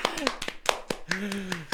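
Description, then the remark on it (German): Brief applause of sharp, irregular handclaps, about ten in under two seconds, fairly loud, with voices sounding over the clapping. “Aber ein Applaus für euch beide an dieser Stelle.”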